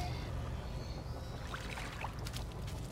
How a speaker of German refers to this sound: Also, ja, das ist äh, Wasser.